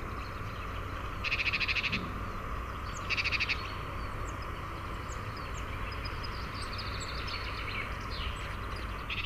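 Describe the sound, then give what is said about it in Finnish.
A played recording of a great tit call and alarm call: two short, rapid churring bursts of the alarm call, followed by faint scattered high chirps, all over a steady low outdoor hum with no talking. “No nyt mä soitan sen kutsuääntä ja varoitusääntä.”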